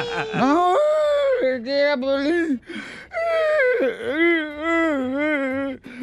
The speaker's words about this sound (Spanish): Ahora, ¿por qué lloras? De verdad estás llorando